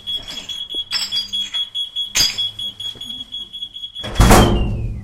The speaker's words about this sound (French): Et on rentre par un petit côté, par une petite porte. Hein. Il, y a, il y a une alarme d'ailleurs qui sonne, voilà.